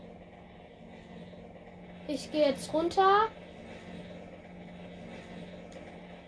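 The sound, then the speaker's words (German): A steady, low helicopter engine and rotor drone in a video game hums continuously at moderate volume, with a man briefly speaking over it midway before the droning carries on alone. “Also ich steige jetzt einfach aus dem Hubschrauber”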